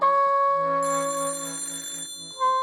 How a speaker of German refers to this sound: Hunkeler hörte das Telefon im Gang klingeln.